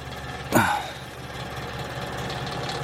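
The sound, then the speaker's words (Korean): A rattling, rotating electric fan whirs steadily with a low mechanical drone on a hot day as it is fixed to blow in one direction, broken early by a single sharp clunk before the buzzing hum settles back in. No one speaks. “나는 털털거리며 회전하는 선풍기를 엄마 쪽으로 고정시켜 주었다.”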